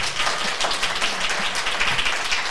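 Steady applause from a crowd, a dense crackle of many hands clapping at an even level for a couple of seconds, with no voices standing out.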